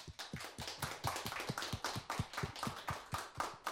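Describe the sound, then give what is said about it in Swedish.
Applause from a small group on the radio programme Radio Total Normal, welcoming back a returning guest: a steady run of sharp, crisp claps, roughly four or five per second, fairly loud and even throughout, with no voices. “En stor applåd!”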